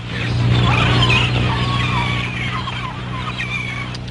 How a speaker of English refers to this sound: All right, right switch on the engine.